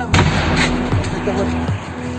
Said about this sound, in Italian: Gli scoppi che sentite sono il rumore che fa la sua auto in fiamme.